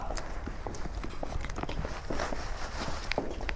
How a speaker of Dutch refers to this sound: Ja, we lopen hier. Eh, we lopen hier tussen de stellingen door en op die stellingen staat allemaal ja, keramiek.